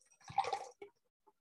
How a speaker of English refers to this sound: we have sound effects of literally uh, alcohol pouring. Wow, literally just gonna like.